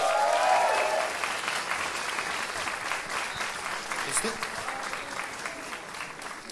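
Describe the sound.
Sustained applause from an audience, a dense steady patter of many hands clapping that fades slightly after the first second and continues evenly, with a faint voice briefly mixed in.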